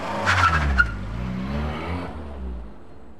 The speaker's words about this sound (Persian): سوار ماشینم شدم و به سمت خونه یادولف به راه افتادم